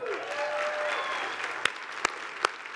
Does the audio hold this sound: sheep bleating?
no